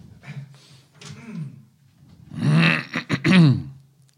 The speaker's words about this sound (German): Stopp, ich muss mal gerade Nase putzen. Tut mir leid.